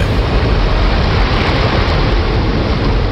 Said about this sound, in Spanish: Y mientras lo hacía, el niño escuchó un fuerte estruendo. El agua del río irrumpió a través del dique hacia la pequeña villa.